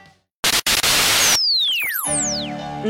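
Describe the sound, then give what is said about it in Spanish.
A loud burst of white noise hisses for about a second, cut by two brief dropouts, then gives way to sweeping, falling electronic tones and a low hum. No one speaks. “Ruido blanco.”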